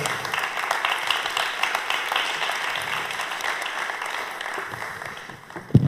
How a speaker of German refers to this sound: Mit einem großen Applaus.